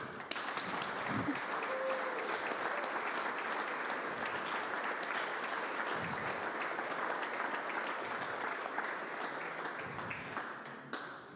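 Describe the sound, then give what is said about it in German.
A crowd applauds steadily for about eleven seconds, a dense wash of many hands clapping at even loudness that tapers slightly at the end, with a faint voice briefly audible underneath. “Ist es nicht ein Applaus wert?”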